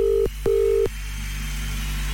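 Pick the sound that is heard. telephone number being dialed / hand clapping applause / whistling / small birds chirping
telephone number being dialed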